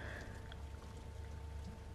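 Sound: rain falling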